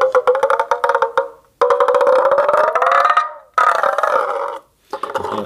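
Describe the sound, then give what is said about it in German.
Loud, strained creaking squeals come in four sustained bursts, tonal and slightly rising in pitch, as a sinew wound around a piece of wood, with a membrane at its end, is twisted; almost resembling a rooster's crow. No voices. “Also die Sehne ist um ein Holzstück gewickelt und kann man so drehen halt.”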